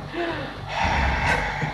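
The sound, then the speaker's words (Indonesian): A person imitates Darth Vader's heavy, mechanical respirator breath from Star Wars with their voice, a single close, raspy inhale shifting into a hissing exhale. “Yang gue tau tuh Darth Vader tuh kalau napas ada suara.”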